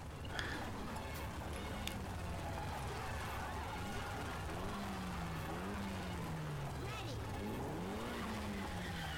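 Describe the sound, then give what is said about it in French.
A loud American car engine revs and drones continuously, its pitch rising and falling, with brief tire squeals and a busy, noisy background throughout. “Voilà, ça c'est un bon bruit d'américaine.”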